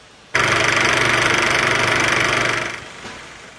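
An old-fashioned film projector, heard on a 1966 road-trip film of Metro Vancouver posted by the provincial transportation ministry, starts abruptly and runs with a steady, loud mechanical whir and rapid fine clatter for about two seconds, then winds down and fades. No one speaks.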